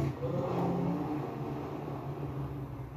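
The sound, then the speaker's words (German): The engine of a burning, damaged old car in a driving video game revs steadily and loudly as it is driven up toward a mountain, a continuous droning rumble with harmonic whine that holds for a few seconds, with no voices present. “Ich fahre nur noch schnell her, hoch zum Berg.”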